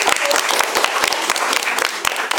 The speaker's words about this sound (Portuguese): Gente, olha só, palmas pra ela.